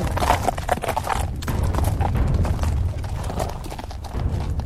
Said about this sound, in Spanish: Por entonces el cabildo se reunió de urgencia y resolvió enviar dos vaquianos a caballo en busca del río perdido. Estos jinetes cabalgaron y cabalgaron y cabalgaron hasta encontrarlo escondido en Colonia del Sacramento.